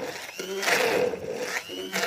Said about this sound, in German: Also die Aprikosen müssen ganz fein püriert sein.